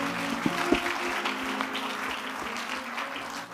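An audience claps for a scripture reading (Psalm 18, verse 43), steadily, a dense wash of many hands with a few sharper slaps standing out early, continuing evenly at moderate loudness without speech.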